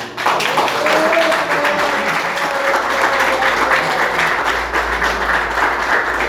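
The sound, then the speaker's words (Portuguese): An audience applauds for the Lord steadily, a dense wash of many hands clapping at an even, loud level for several seconds with a faint tonal hum underneath. “A mocidade agradece essa oportunidade e as palmas ao Senhor.”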